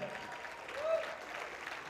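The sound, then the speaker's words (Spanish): An audience applauding the Lord: dense, steady clapping from many hands that holds at an even, moderate loudness throughout, swelling slightly midway. “si le das el aplauso, dale fuerte el aplauso al Señor.”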